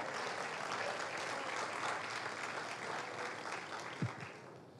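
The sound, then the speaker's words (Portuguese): A church audience claps for Jesus with raised hands, a dense wash of steady applause for several seconds, with a brief low thump near the end as the clapping begins to taper. “Levante as suas mãos, meus irmãos, e aplauda Jesus mais uma vez com alegria.”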